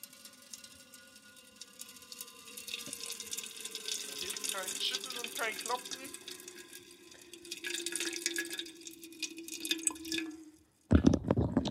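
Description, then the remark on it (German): Liquid trickles steadily into a beer can for about ten seconds, a hollow pour with faint drips and splashes, then stops abruptly before a short burst of noise. “Das ist jetzt die Bierdose.”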